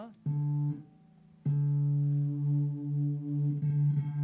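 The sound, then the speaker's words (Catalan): A sustained electric guitar note passed through a harmonizer pedal that doubles it, played in two bursts. The effect adds a slightly detuned, wavering chorus-like shimmer to the clean tone. “Llavors, passem a l'harmonitzador aquest.”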